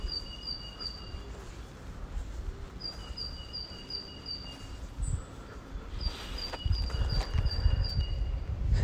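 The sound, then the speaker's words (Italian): Small birds chirp in quick, high-pitched repeated trills that come in several bursts, over a steady low outdoor rumble. “Ecco, ad esempio, io adesso vi dico, sentite questi uccellini.”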